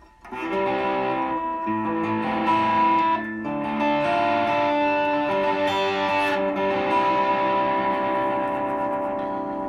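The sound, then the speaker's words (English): Distorted electric guitar strums four sustained chords in turn, C, A minor, D minor and G, a 1-6-2-5 progression, each ringing out loud with a thick, buzzing tone and no voices. “So that's C, A minor, um, D minor, and then uh, a G.”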